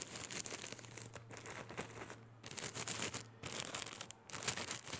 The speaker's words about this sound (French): J'aime le son du papier froissé.